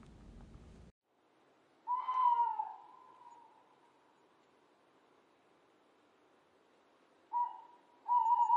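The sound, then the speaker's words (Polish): An owl hoots in a quiet night setting: one drawn-out hoot that fades slowly, then after a long pause two more hoots in quick succession. No one speaks. “Wiewiórki smacznie spały i nawet uchanie sowy nie było w stanie ich obudzić.”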